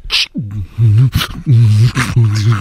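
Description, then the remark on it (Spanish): A short burst of beatboxing by a beatbox contest winner: sharp breathy snare-like hits alternate with a repeating low, wobbling hummed bass line in a steady rhythm, loud and with no talking over it. “Porque ese es un beatbox, dice.”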